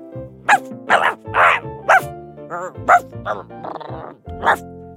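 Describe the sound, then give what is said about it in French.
A dog named Toulouse barks loudly from its kennel in a quick, irregular string of about seven sharp barks, with a brief whiny, yelping stretch in the middle. “Louisa et Nino ressortirent de l'autre côté du jardin, en prenant un tunnel qui les amena directement dans la niche du chien.”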